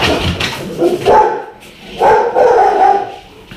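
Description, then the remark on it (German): Dogs, one of them named Whisky, bark back and forth in loud, overlapping bursts after another dog started barking, one bark answering another in an uneven exchange, with a brief lull between volleys. “Whisky bellt gerade mit einem anderen Hund, weil ein Hund angefangen hat zu bellen und dann ist jetzt Bellen angesagt.”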